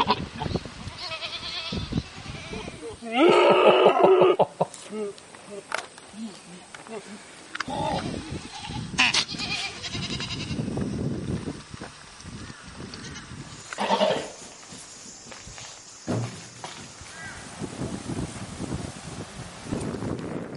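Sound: goat bleating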